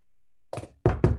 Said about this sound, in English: Knock on wood. I've been very lucky.